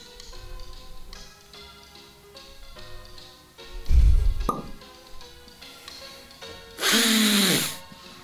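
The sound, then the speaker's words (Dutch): A wine cork is worked out of a bottle: a dull thump, a short squeak, then a loud, rough squeaking burst as it comes free, over soft background music. “Nee, het was de kurk van de wijn, zoals het cultuur, eh, eh, zoals het traditioneel hoort, om de kurk te snatsen.”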